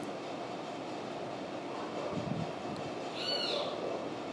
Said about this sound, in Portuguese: mas pode ser quem está piando lá fora. Quem está piando sou eu ou é o pássaro?